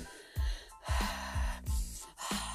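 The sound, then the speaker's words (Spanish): Breathy gasps repeat in a quick steady rhythm, about five in a row, each a rush of air with a low voiced edge, deep breathing in and out during sex. “respirando y botando aire y así haces que el placer se inunde por todo tu cuerpo.”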